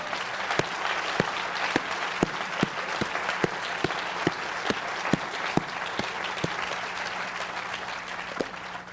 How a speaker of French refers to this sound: Mais j'aimerais ce matin, est-ce qu'on peut les remercier, les applaudir pour tout le travail depuis des années